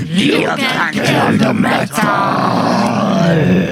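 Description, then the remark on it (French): A loud, unbroken stretch of black metal by a Canadian band: harsh, raspy growled vocals roar over a dense, saturated wall of distorted instruments, with the voice bellowing in long drawn-out phrases. “Groupe euh, canadien, c'est dire si le Canada nous gratifie de très belles pépites black metal euh, ces derniers temps.”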